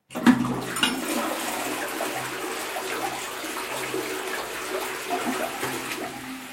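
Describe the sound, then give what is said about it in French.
A toilet flushes with a sharp start, then a steady rushing, gurgling wash of water that continues for several seconds without fading much. “C'est occupé. Oh, pardon.”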